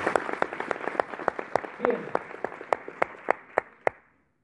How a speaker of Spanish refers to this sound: Son las que lideran el portafolio y un fuerte aplauso para estas grandes empresas.